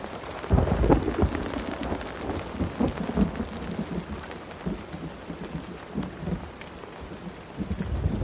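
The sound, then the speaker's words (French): Steady heavy rain hisses throughout, with deep rumbling thunder swelling strongly near the start and continuing to roll in the background of a storm. No voices are present. “Le tonnerre martèle sur la peau de mon tympan.”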